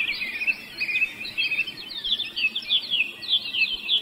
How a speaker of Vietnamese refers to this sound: I want you to hear the sound of birds singing. Và tôi muốn quý vị lắng nghe tiếng ca hát của những con chim.